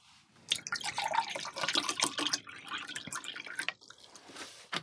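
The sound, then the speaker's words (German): Water is poured into a glass, a bright splashing trickle with gurgling bursts lasting several seconds before tapering off. No one speaks over it. “Noch Wasser? Danke, ja.”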